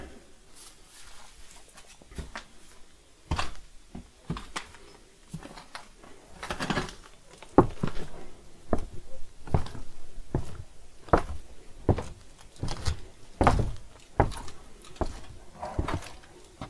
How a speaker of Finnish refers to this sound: nyt se kolina kuuluu uudestaan, aika aavemaista, kun pellit kolisee tuulessa eikä oikein tiedä mistä se tulee.